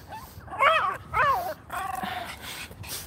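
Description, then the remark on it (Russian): A small dog lets out two quick, high-pitched yips, followed by a longer whiny yelp, with a faint background hiss and no talking. “Смотри, какая хорошая девочка. И собака такая.”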